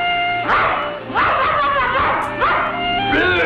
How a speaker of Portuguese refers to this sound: Então, mas peraí, o Dino era um dinossauro. ladrava, era tipo um cão, era na, na verdade ladrava e tudo.